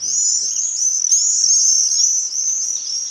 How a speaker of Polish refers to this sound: Po prostu w każdym miejscu w Warszawie są jeżyki i ten ich charakterystyczny dźwięk jest nie do pomylenia z żadnym innym.